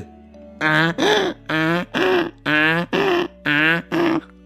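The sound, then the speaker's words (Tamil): A person loudly imitates a donkey's bray: seven strong, evenly spaced voiced honks in a steady rhythm, forceful, with no other talking. “அப்படின்னு நல்லா கத்த ஆரம்பிச்சிடுச்சு இந்த கழுதை கணக்கிற சத்தம் கேட்டதும் அந்த திருண கொஞ்சம் பயந்து போய் ஆஹா என்னடா இது இந்த வீட்டில் நாயை விட இந்த கழுதை பயங்கரமா கணக்குதே”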